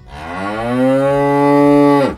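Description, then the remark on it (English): A single long cow moo, loud and close, rising slightly in pitch and holding steady for about two seconds before cutting off abruptly. No other sounds accompany it. “Yes, Prince Charles has taken a keen interest in cutting greenhouse gases by, get this, masking cows.”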